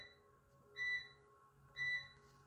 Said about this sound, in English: That washing machine sounds an awful lot like a microwave. No, it's it's my washing machine.